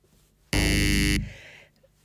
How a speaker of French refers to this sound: si tu peux me poser les questions de façon frontale et je, me ferai une joie d'appuyer sur le oui ou le non de euh, mes beaux buzzers.